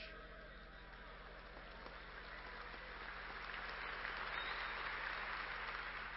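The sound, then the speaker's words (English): A large crowd applauds steadily on a Sunday, a dense wash of clapping that holds for the whole stretch and swells slightly louder toward the end, with no voices standing out. “Well, that was an exciting Sunday because the applause uh, continued, on for probably another 10 to 50 minutes.”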